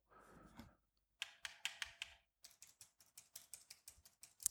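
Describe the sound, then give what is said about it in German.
Computer keyboard up and down arrow keys clicked during a Steam Remote Play game session, a short burst of about five presses followed by a quicker, steady run of a dozen more, after a soft breathy exhale. “Auf der, drück mal auf der Tastatur was. Druck mal einen Pfeil auf, Pfeil ab.”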